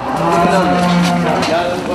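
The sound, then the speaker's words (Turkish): Cows moo loudly, their low, drawn-out calls overlapping and rising and falling in pitch without a break for the whole two seconds; cows on a farm in Korkuteli, Antalya, Turkey, left without food or water for nine months. “Onlarca inek aç ve susuz bırakılarak ölüme terk edildi.”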